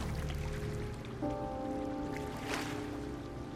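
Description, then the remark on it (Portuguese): Steady flowing water of a spring in a cave, trickling and rushing continuously at an even level, with a faint tonal hum layered beneath it and no voices. “Tem água, provavelmente estamos perto do lago, não?”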